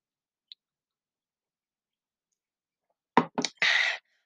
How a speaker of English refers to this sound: On that note, I'm gonna sip some tea.